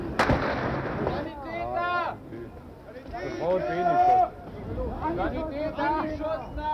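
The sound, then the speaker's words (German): A single loud, sharp gunshot cracks out at the start as live ammunition is fired during an uprising in the Soviet sector of Berlin, followed by agitated voices shouting and calling over a rough background of crowd noise. “Wenig später wird scharf geschossen.”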